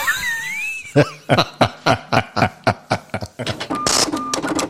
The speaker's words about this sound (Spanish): Bueno, eh, la caja registradora.